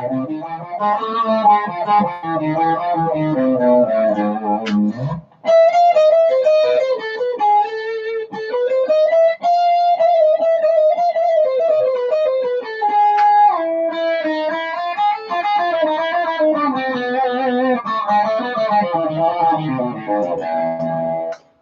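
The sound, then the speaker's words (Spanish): A melodic instrumental line playing the Hungarian minor scale in A (A, B, C, D sharp, E, F, G sharp), with a bright, effect-laden tone. Notes rise and fall in a continuous flowing run with an exotic, Eastern-sounding character, and no talking. “Entonces, la escala menor húngara de la sería la, si, do, re sostenido.”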